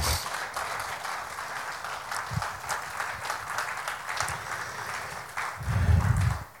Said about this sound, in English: If you guys believe any of what I said, can you just give God a hand clap of praise this morning?